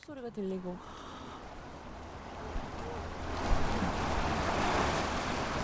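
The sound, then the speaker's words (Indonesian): Ocean waves wash steadily beneath the Gwangan Bridge at night, a broad rushing hiss that swells louder about halfway through. A brief voice is heard at the very start before the surf takes over. “Ada hiasan berbentuk gelombang laut dan juga terdengar suara ombak.”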